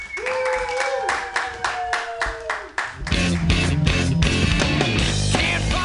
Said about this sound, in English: Uh, here at the Joke Workshop. So uh, we're just gonna kick it right off here, you guys. Clap it up for your very first comedian.